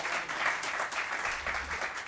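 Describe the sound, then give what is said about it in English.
A crowd applauds steadily at the end of a speaker's presentation, many hands clapping together in a dense, continuous patter that holds an even loudness throughout, with no voices standing out. “I, I can tell the crowd agrees with me.”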